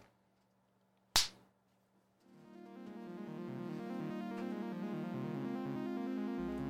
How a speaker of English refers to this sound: I just need you to clap us in.